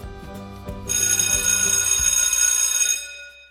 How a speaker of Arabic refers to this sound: بدأ اليوم الدراسي كعادته في مدرسة الغابة بصوت الجرس معلنا بداية الحصة الأولى.